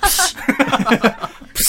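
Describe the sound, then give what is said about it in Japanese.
A voice mimics a plastic bottle of cola being opened with a sharp, breathy hiss. Quick talk follows, then a second loud hissing burst at the end. “普通にプシュっていうことを。”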